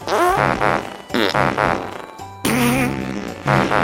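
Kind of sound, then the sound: human body sound, fart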